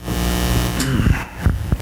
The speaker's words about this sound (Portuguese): Ligar o ventilador, né?